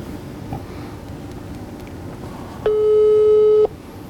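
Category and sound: signal or alarm, telephone ringing tone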